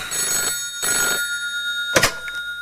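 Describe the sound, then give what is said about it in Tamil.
A telephone bell rings twice in short, bright bursts with a pause between, followed by a brief knock or clunk near the end. No one speaks. “telephone அடிக்குது telephone அடிக்குது telephone அடிக்குது ரிங் ரிங் ரிங்”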